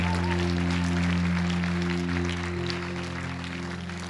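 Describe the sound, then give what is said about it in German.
An audience claps for the preacher after the sermon in a steady, dense, continuous patter that softens slightly toward the end, over a sustained, low keyboard chord humming underneath. “Lass uns Christoph auch einen Applaus geben.”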